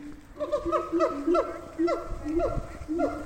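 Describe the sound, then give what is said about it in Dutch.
Monkeys in a tree screech in a rapid, repeated series of harsh, honking calls, about half a dozen in quick rhythm, fairly loud, with no talking. “Ja, ik zie ze schreeuwen.”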